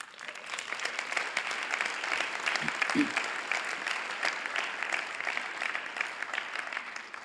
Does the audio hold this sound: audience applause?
yes